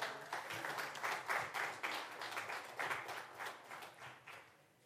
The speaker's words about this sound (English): Can we have another round of applause for my helpers today?